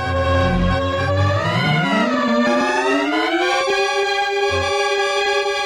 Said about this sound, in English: Depending on the brightness of the image, the theremin will make a different sound.